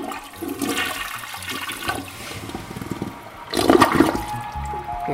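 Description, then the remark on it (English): A toilet in a student dorm flushes with a loud rushing of water that surges midway, then swirls and gurgles as the bowl drains and begins to refill. “All it takes to get early detection is flushing toilets.”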